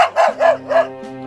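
A dog barks three times in quick succession, fairly loud, each bark short and tonal, followed by a faint steady hum. The dog is Poppy, a soft white toy dog.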